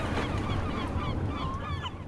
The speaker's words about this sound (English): with the seagulls. yeah, as the seagulls fight over a French fry.